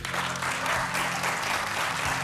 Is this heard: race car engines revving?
no